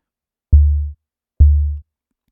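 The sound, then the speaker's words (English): Two synthesized, hand-built kick drum hits with a shortened decay setting, evenly spaced, each with a quick click at the attack followed by a deep, booming low tone that fades out fairly quickly. No voices. “So already it's starting to sound more percussive, more like a bass drum.”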